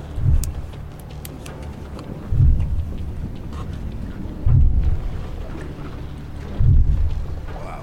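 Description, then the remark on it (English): Underwater pile-driving for wind farm construction, recorded by hydrophone: four deep, booming thuds land at steady two-second intervals, each ringing out into a continuous low rumble, loud, with no voices. “Illegal Levels Of Whale-Killing Pile-Driving Noise By Wind Industry Documented”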